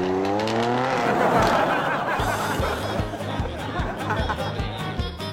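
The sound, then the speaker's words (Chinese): A BMW M5 sports car engine revs, its pitch climbing sharply, then settles into a loud roaring rush as the car drives off, with regular low thumps running underneath. “这种人啊，下班就换衣服去周围取车去了。丢丢哟，宝马 M 五。”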